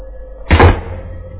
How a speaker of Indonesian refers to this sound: suara pintu asrama di lantai satu itu kebanting.